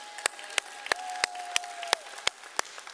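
Congregation applause at a church service, given for a birthday, comes as a steady run of about eight crisp, evenly spaced claps over three seconds, with a sustained mid-pitched tone humming faintly underneath that slides slightly lower near the end.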